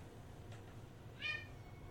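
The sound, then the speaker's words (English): A single short meow from a female pet cat named Ginger rises briefly from a quiet, low background hum, fairly soft, with no talking. “My cat keeps trying to unplug my cable.”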